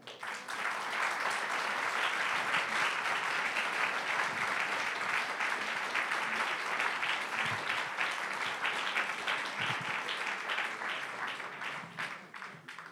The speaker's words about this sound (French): Et pour ça, on accueille sous vos applaudissements et dans le bruit, bien sûr,